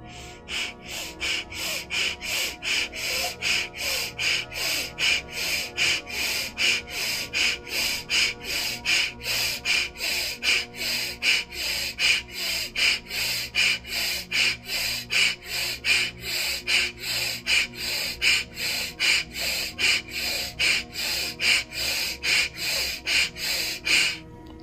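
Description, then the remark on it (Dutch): Rapid, forceful breaths pushed in and out at a steady quick rhythm, about two per second, loud, during the "Espresso Breath", a short breathing exercise for a quick energy boost, continuing for the whole stretch with no talking. “Ontdek de "Espresso Breath" - een korte ademhalingsoefening voor een quick energ”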